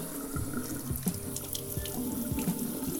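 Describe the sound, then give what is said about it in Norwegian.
A tap runs steadily into a sink in a bathroom at a friend's home, water splashing and gurgling continuously for a few seconds, with no voices. “Nå skal jeg teste hvordan vannet smaker på badet hos henne.”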